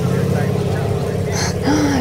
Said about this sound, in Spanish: Aquí a la izquierda vamos a llegar a Piedras Viejas. Es este caminito de terracería. Ay, ¿sí crees que pasa el carro? Claro, claro.